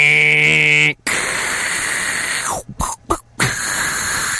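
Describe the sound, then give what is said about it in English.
A voice mimics an old dial-up modem connecting: a steady, high-pitched tone, then a long harsh hissing screech broken by several short gaps and crackling bursts. “remember how the old modem sounded, right?”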